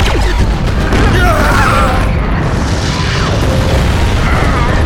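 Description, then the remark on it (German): A gunshot strikes a generator box beside a bungalow and sets off an explosion: a loud, sustained roaring rumble with crackling and metallic clatter running steadily for about five seconds. “Hubert riss die Waffe nach links halt, halt. und feuerte auf eine Generatorbox neben einem Bungalow.”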